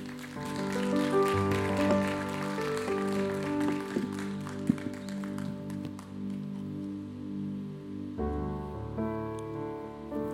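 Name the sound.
audience applauding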